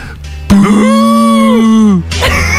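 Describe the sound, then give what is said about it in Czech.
A person imitates an elephant in a way that sounds like a cow's moo, one loud, sustained lowing call lasting about a second and a half, steady in pitch before dropping off abruptly. No other voices accompany it. “To není kráva, ale zní to jako kráva. To je slon, jak dělá slon?”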